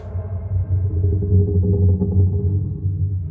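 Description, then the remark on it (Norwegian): A boat engine on the water at night drones steadily with a deep, low-pitched rumble, holding fairly constant in loudness throughout, with no voices present. “Det er lyden av en båt, og den blir sterkere og sterkere.”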